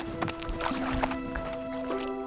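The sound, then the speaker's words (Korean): Water sloshes and splashes at night in a well, in a few irregular bursts like strokes of someone swimming or paddling, over a steady low humming drone in the background. “그런데 그때 우물 쪽에서 물소리가 들리는 거예요. 어, 수영하는 소리가 들리는데?”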